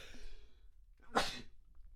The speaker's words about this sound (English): I really I have to sneeze.